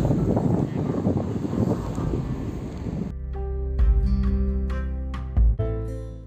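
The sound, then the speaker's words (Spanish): A rough, blustery sea breeze roars across the microphone at the sea for a few seconds, then gives way to steadier tonal sounds with occasional sharp knocks. “Este es la el ruido de la brisa, es lo que nos convoca el día de hoy.”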